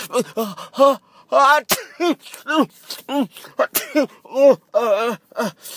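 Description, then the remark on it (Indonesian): A rapid string of high-pitched sneezes from several children gathered in a house in the afternoon, set off by smoke drifting in: short voiced bursts overlapping one another, with a couple of sharp, explosive ones standing out, fairly loud. “beberapa anak yang sore itu sedang berkumpul dan mendengarkan cerita kakek Ayon mulai bersin-bersin.”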